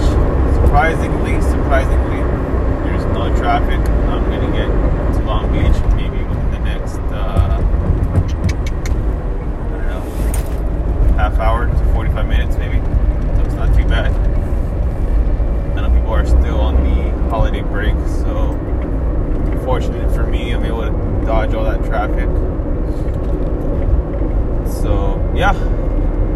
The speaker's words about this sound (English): Current situation right now, I am going west on the 10 freeway, about to go south on the 605 on my way to Long Beach.